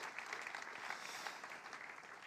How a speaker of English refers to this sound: Let's give Eliana a round of applause.